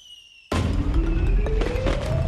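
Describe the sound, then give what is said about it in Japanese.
After a brief hush, loud fireworks of many colours and sizes (red, blue, yellow, green, orange, purple, pink) erupt with a deep rumbling boom and crackling bursts, while a whistling tone slowly rises over the continuous noise. “赤青黄色緑にオレンジ紫ピンク大きさも色も違う花火がいっぱい”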